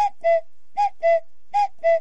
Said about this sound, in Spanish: Se les llama así porque estos relojes tienen un mecanismo especial que hacen que cada media hora se abra una puertita y aparezca un pájaro que canta